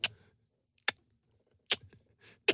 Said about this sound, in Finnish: laitat joku kelloäänitteen sinne laukkuun.